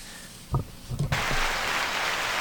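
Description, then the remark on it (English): A few soft thumps give way to a steady, dense wash of clapping that starts about a second in and continues evenly to the end, with no voices. “Those are beautiful claps”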